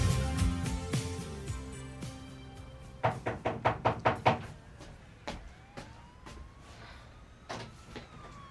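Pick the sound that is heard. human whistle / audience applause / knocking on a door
knocking on a door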